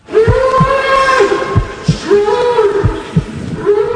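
Drawn-out, strained bellowing cries from a bull being beaten and slaughtered in a public spectacle, rising and wavering in pitch over several long calls, with dull rhythmic thumps pulsing underneath and no one speaking.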